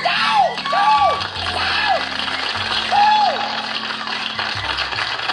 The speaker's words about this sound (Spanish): Sí, ahora, ahora aplauden demasiado.